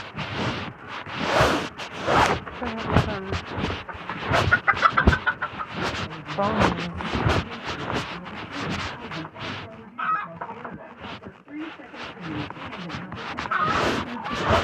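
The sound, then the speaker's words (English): Chickens cluck continuously in a busy, overlapping chorus, with sharp repeated calls and a steady farmyard bustle throughout; no one speaks. “Was that fucking chicken?”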